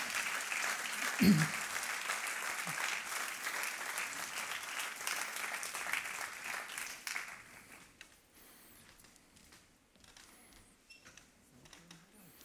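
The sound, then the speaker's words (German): An audience applauds people from a small group as they come onto the stage, with dense, steady clapping that stays loud for about seven seconds, then thins out and fades to scattered claps and quiet, with a brief low thump early on. “Geben wir ihnen Applaus, ja.”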